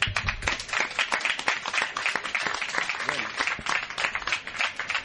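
A crowd applauds Lucio Urtubia steadily, many hands clapping in a dense, continuous patter that holds at a fairly loud level for several seconds without any voices standing out.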